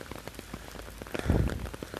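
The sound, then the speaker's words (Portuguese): Steady rain patters on a hard surface, a dense crackle of drops with a heavier gust of downpour midway, moderately loud, with no voices. “E eu tava falando, gente, espera que essa chuva.”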